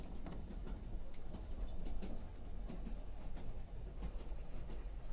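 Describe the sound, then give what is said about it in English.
Steady low rumble of a moving train car fills the space, with faint intermittent creaks and rattles over the continuous drone, heard from inside. “The creaking and bobbing of the train keeping me awake.”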